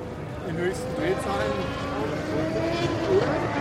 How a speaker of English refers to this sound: Vintage Indy 500 cars roared by on the racetrack.